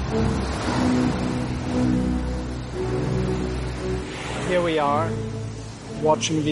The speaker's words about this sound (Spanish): Estamos ahí mirando el océano, escuchando el ruido de las olas, sintiendo la temperatura, percibiendo con los sentidos, experimentando el placer, el bienestar.